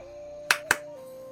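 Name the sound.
hand clap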